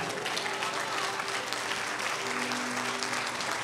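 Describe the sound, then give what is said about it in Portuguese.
A church audience applauds steadily in response to a pastor, a dense, sustained wash of clapping from many hands, with faint murmuring voices underneath. “Talvez você entenda assim, pá, pastor, mas isso é, isso é jargão de pastor que quer tirar aplauso da igreja.”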